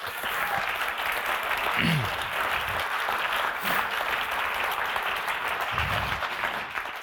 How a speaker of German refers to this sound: Und ich finde, das ist doch auch mal ein Applaus wert.